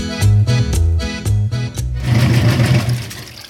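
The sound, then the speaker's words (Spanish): A washing machine winds down at the end of its cycle with the clothes done: a loud rhythmic mechanical clatter for a couple of seconds, then a steady rumbling whir. No voices. “¡Qué bien! Ya salió la ropa de la lavadora.”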